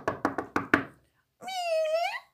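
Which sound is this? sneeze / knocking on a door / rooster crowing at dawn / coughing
knocking on a door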